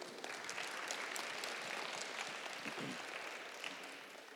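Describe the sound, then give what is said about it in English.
Steady applause from a crowd for the sound engineers fills the whole span, a dense wash of many hands clapping at once, even in loudness and tapering only slightly at the end. “Clap for the sound engineers.”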